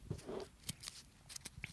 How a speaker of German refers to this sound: Ähm, das ist eines dieser Craft-Biere, die in ein wunderschönes Papier eingewickelt sind. Was echt beschissen ist zum Aufmachen gerade. Einen Moment. Mit einer Hand.